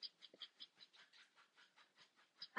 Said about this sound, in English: You'll probably hear my dog scratching in the back. That's fine.